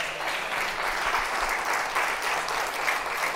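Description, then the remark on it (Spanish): Sustained applause from a church audience, clapping loudly for the Lord during a service, a dense, steady wash of clapping that holds at an even, fairly loud level throughout with no voices standing out. “Gloria a Dios, dile un aplauso fuerte al Señor.”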